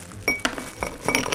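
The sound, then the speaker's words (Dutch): Ice cubes clink into a glass, five or six bright, hard knocks in quick irregular succession, fairly loud, with a brief ringing tone after each one. “En die maken heel bevredigend luid als de ijsblokjes naar beneden ploppen.”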